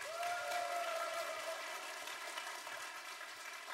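Steady audience applause, a dense wash of many hands clapping at a fairly even level throughout, with a faint tonal whistle or cheer sweeping through near the start.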